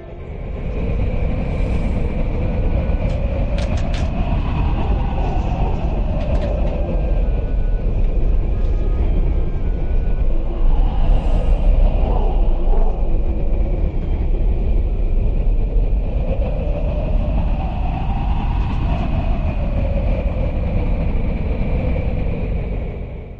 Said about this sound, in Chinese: 这风声越来越大，我们在哨所里都能听到外面一片呜呜声。透过窗户向外看，大风夹着鹅毛大雪，打着卷吹向四面八方。